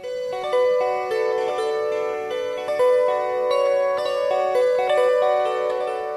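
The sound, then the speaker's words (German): A melody played on a small kantele, bright plucked notes ringing and overlapping in a steady, unhurried rhythm, clear with no voices. “Also zunächst spiele ich euch erst einmal eine Melodie auf dieser kleinen Version der Kantele.”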